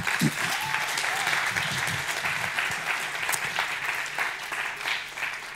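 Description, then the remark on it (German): An audience applauds for Alessio steadily, a dense, even wash of clapping that holds at a fairly loud level throughout, with a few faint voices and cheers mixed underneath. “Applaus an Alessio.”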